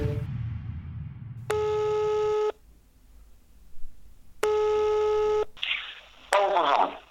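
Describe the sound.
An outgoing telephone call rings out unanswered: two long electronic ringback tones separated by a silent pause, clear, with faint line noise between and a brief muffled voice fragment at the end.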